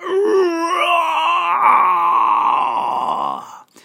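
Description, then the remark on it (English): A person voices a long, growling roar of a huge dinosaur called Humpty Rex, starting low and rising into a loud, rough, sustained bellow that trails off after about three and a half seconds. “His roar was so loud that the wall started crumbling.”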